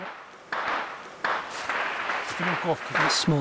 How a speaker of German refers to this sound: Das sind Gewehrschüsse der Ukrainer, aber auch Artilleriefeuer gibt es häufig.